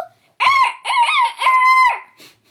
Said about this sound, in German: wenn ihr ah. den Hahn krähen hört, dann müsst ihr aufstehen.